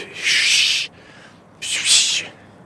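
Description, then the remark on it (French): A person imitates an alpine ibex alarm whistle with two loud, breathy, hissing blasts, each under a second, separated by a short pause. “Un bouquetin qui était au pied d'une barre, comme ça. On a, passé un peu près de lui, donc il a poussé un sifflement, quoi.”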